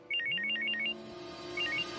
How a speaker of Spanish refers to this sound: El móvil de Raquel suena y ésta se despierta para contestar la llamada.